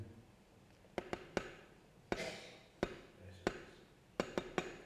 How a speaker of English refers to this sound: As an old sailor knows that's SOS.